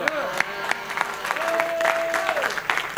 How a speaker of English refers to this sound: you see, all those clapping, may heaven bless you and remember you.